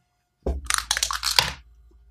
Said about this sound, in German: Oh fuck, jetzt ist der Würfel weggesprungen.